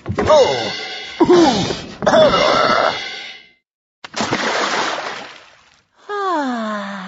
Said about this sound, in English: The others crashed into the tree.